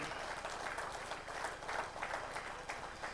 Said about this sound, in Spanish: Dale otro fuerte aplauso a Cristo.